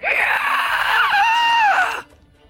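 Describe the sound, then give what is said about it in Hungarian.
A loud, piercing shriek from a yellowish vapour rising off a flame holds for about two seconds with a wavering, sliding pitch, then cuts off abruptly into near silence. “Ilyen sárgás párolgás az, ami elég egyébként nagyon erősen is, is sikít.”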